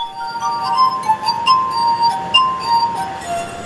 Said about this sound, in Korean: 영화 음악, 재즈까지 다양한 곡을 연주하는데요. 심지어 유명한 중국 전통 음악까지 연주해냅니다. Very amazing. 중국에서 온 관광객은 유리잔 연주로 자국의 음악을 듣게 돼 놀랐다며 엄지 손가락을 치켜 세웠습니다.